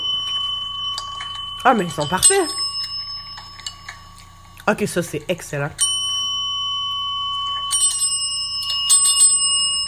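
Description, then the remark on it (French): A small bell is struck several times by cats ringing it to get kibble, each ring clear and sustained, lingering and overlapping with the next. People talk and react between the rings. “Ah, ils sonnent la cloche pour avoir des croquettes.”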